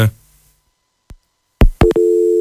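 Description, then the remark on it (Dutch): Sharp clicks of a line cutting off, then a loud, steady telephone busy tone starts up and holds, a flat electronic hum with no voices. “nee, de verbinding is eh, helaas verbroken.”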